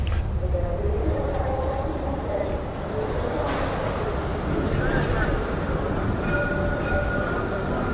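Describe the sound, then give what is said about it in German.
A steady, loud rumble of a train at Garges-Sarcelles station in France, with metallic tonal whines and squeals drifting over the low roar, and indistinct voices murmuring in the background throughout. “Und wir sind dann in Garges-Sarcelles ausgestiegen, diesem Bahnhof”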